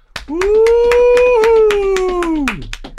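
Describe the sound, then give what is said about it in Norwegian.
Quick, steady hand claps mixed with thumping stamps, loud, while a voice holds a long whooping cheer that slides down in pitch at the end; the hosts are giving applause to all the winners of the vote. “Men vi kan gi en liten applaus til alle valgets vinnere.”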